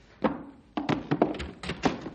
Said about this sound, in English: Hey, hey, the door's opening by itself. Pretty fancy. Rangers have automatic doors. Hey, Stumpy, why'd you open the door for me?